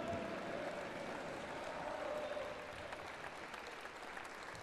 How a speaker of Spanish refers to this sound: Eso es, apláudele fuerte. Y repite mientras aplaude, yo viviré potencializado.